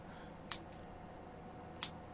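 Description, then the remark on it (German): Two crisp scissor snips, spaced a little over a second apart, cutting a shoelace out of a shoe against a quiet, faintly humming background with no voices. “Wie bekomme ich den Schnürsenkel aus dem Schuh heraus? Äh, Schere.”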